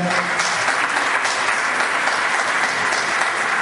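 Sustained audience applause at an annual showcase of short films from Alicante, a dense, steady wash of many hands clapping at an even loudness throughout, with no voices standing out.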